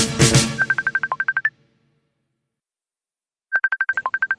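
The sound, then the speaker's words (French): A phone rings with a rapid electronic trill, two bursts of quick repeated tones separated by a couple of seconds of silence, clear, after a brief noisy rustle at the start. “Hello petit chat Ça va bah, Je t'appelle euh, encore une fois, mais promis c'est la dernière.”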